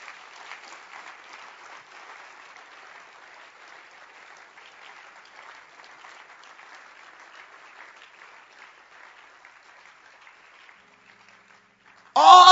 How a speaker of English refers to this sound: Oh, Jesus. You can clap your hands. You can clap your hands.